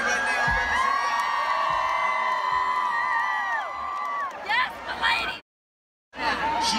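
A concert crowd cheers loudly for a fan invited on stage, with high-pitched screams and whoops rising over a steady roar. The noise drops out abruptly for a moment near the end, then the cheering resumes.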